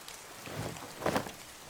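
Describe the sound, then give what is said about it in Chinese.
Steady rain falls in a soft, even hiss, with a slight swell in the pattering near the middle. No voices can be heard. “嗯，哪时候雨才要停啊？”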